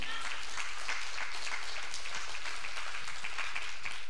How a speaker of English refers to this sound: You can clap, it's okay, come on.